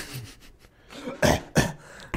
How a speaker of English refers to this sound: Do a little cough.